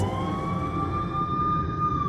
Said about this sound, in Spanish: ¿Qué es eso? preguntó Inés. Y Eva le propuso escuchar con atención. ¡Es una ambulancia! dijo Inés aliviada.